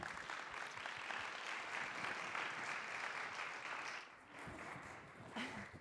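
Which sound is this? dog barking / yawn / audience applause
audience applause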